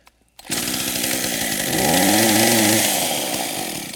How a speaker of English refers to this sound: this chainsaw has a spark plug. So what do you think is going to happen when I try to start it?